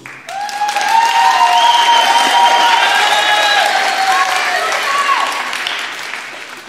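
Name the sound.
audience applause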